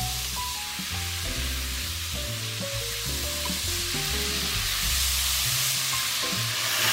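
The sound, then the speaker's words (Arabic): Raisins sizzle steadily in a hot frying pan as they begin to soften and turn glossy. A dense, continuous crackle with a low rumbling undertone stays fairly loud throughout. “صوت الزبيب هو شكله ابتدى يطرى معايا شويه واللمعه اللي فيه ابتدت تطلع كده”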